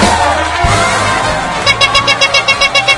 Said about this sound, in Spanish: Un aplauso, por favor, el primer aplauso del año.